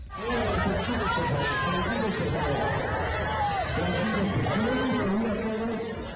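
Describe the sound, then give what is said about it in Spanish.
A dense, agitated crowd of many voices shouting and yelling over one another during a brawl between PRD and PRI militants at the campaign-closing rally of candidate Alejandra del Moral, with raised pitches rising out of the uproar, holding loud and steady for the whole clip. “Esto que se escucha es parte de la trifulca que se vivió y que a través de videos difundidos en redes sociales se puede ver a los perredistas y priistas intercambiando manotazos a uno y a otro lado de la valla”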